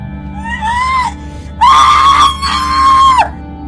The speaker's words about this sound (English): Why are you screaming when I haven't even cut you yet?